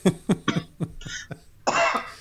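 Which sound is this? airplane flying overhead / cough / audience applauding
cough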